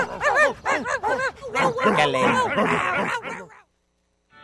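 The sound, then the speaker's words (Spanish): Small dogs bark and yip in quick, high-pitched bursts that pile up into an overlapping, excited, loud chorus before cutting off abruptly into near silence. “¿Cómo se portaron mis perritos?”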